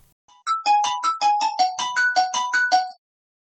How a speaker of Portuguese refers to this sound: Algures, um telemóvel toca num fim de tarde, começo de noite.